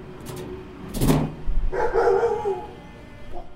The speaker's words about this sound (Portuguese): Começo a dar batidinhas na placa de metal que cobre todo o portão. E o João tinha razão. Os cachorros começam a latir imediatamente.